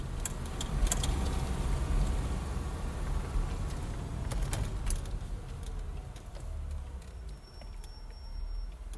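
A car rolls slowly into the courtyard of a family house with a steady low engine rumble and scattered crunching clicks, easing to a halt. No one speaks.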